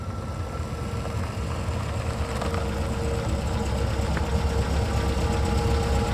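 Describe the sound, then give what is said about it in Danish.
A car engine idles steadily, a low continuous rumble with a faint knocking vibration, holding at an even level throughout with no voices, as two dark cars park on a residential street in Aalborg, Denmark, near 9 pm on 10 January 2017. “Klokken nærmer sig 21, og alting under fred, som det plejer, da to mørke biler parkerer i nærheden.”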